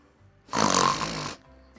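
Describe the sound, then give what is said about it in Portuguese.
One loud, raspy snore drawn out for under a second, rough and breathy, with quiet before and after and no talking. “Talvez isso o faça parar de roncar e assim poderemos voltar a dormir.”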